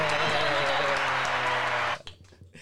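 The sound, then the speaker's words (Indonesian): A dense burst of clapping with voices mixed in beneath it, steady and fairly loud for about two seconds before it stops abruptly and leaves only faint sounds. “Oke. Tepuk tangan.”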